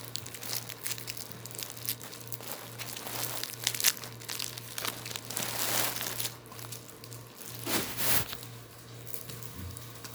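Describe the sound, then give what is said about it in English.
Crinkly plastic wrapper being peeled off a homemade chewy candy, taken straight out of the fridge, and crumpled in a steady stream of crackling rustles, with sharper tearing bursts near the middle and end, over a low constant hum. “The older ones, let me just peel feel this shit.”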